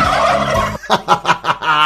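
A turkey gobbles loudly: a short harmonic call that breaks into a fast, rattling burst of about five warbling pulses, with no talking.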